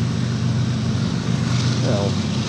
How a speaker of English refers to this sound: wait for that motorcycle to go by.